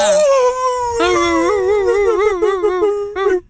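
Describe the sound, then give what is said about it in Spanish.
A person imitates a dog's wolf-like howl, a sustained wavering tone rising and sliding with a trembling vibrato for several seconds before cutting off, loud. “¿han escuchado ustedes un, perro cuando dicen que hay algo maligno cerca? Ajá. Y que empieza a aullar así como lobo.”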